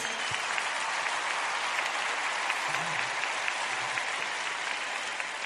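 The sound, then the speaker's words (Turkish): Steady, dense audience applause fills the whole stretch, a continuous wash of many hands clapping at an even, sustained loudness with no break or fade. “Alkış kıyamet geldi evet.”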